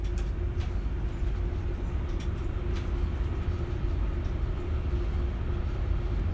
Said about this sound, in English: On behalf of Železnična Spoločnost Slovensko, the national carrier, we would like to welcome new passengers aboard this intercity train 524 to Bratislava Hlavna Stanica.